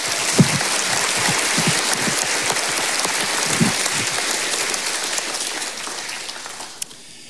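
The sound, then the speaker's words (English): An audience at the Journey Christian Church applauds steadily for about seven seconds after a new leader vows to lead the flock, a dense, even patter of many hands clapping that thins out slightly toward the end. “Yeah, you can clap.”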